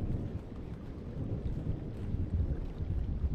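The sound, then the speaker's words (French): Deep, continuous rumbling of thunder from an approaching thunderstorm rolls low and heavy throughout, a steady stormy roar with no voices, under heavy, sultry, very calm weather. “L'orage approche.”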